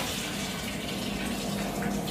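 Cloudy, starchy rinse water from a bowl of potatoes being prepared for French fries pours steadily out into a sink, a continuous splashing rush with no pauses and no voices.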